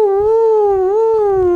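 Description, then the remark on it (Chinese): A voice imitates a weasel's wailing howl heard at night outside a window: one long, sustained, mournful tone with a strong steady pitch that sags and rises slightly, loud and unbroken, with faint low rumbling beneath. “那就是数数十只就是不同的那个频次发出这种哀嚎的声音”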